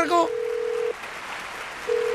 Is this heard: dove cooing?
no